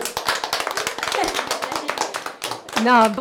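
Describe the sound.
An audience applauds with dense, steady clapping that runs throughout, and a voice calls out over the clapping toward the end.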